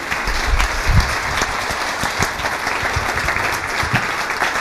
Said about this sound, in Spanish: Gracias. Un aplauso de verdad para ella.